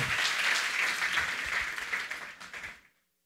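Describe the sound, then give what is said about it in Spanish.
A church audience gives a loud round of applause to the Lord, a dense, steady wash of many hands clapping, loud and sustained for nearly three seconds before cutting off into silence. “De un fuerte aplauso al Señor.”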